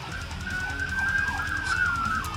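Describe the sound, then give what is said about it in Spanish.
A police siren wails steadily, its tone sliding in repeated sweeping cycles over low traffic rumble as the vehicle passes by. “Por aquí está pasando Robocop. Espero que no afecte mucho el sonido.”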